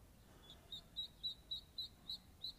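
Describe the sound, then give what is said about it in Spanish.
A bird calls outdoors in a steady series of about nine short, high chirps, evenly spaced and fairly soft, over a faint background hush with no talking. “Pero vienen ya nadando hacia mí, capaz si los escuchas, pon atención.”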